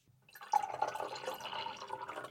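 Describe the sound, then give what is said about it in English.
Cloudy apple juice is poured into a glass, a steady gurgling stream that begins abruptly and runs for about two seconds with no talking. “I'm going to pour Let's you some of this.”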